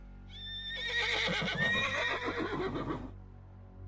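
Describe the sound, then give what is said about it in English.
A horse whinnies in one long, shrill, quavering call lasting about three seconds, fairly faint as if some distance away, with no other voices. “He hears horses in the distance.”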